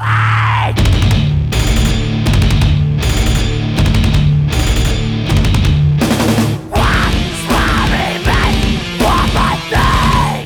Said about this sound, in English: It's another emotional mid pace song with a sick breakdown where the drums sound like jackhammers. And that's not like hyperbole, they, they literally sound like a jackhammer.